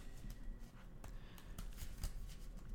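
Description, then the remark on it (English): Soft papery riffling and flicks as a single card is shuffled back into a deck, a string of quick crisp bursts at an uneven rhythm, fairly quiet, with no one speaking. “Um, so let's shuffle this one card back in.”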